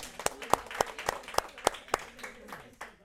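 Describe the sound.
A short burst of applause congratulating a couple on 57 years: sharp, evenly spaced claps at a steady, brisk rhythm, around a dozen in all, with faint voices murmuring beneath.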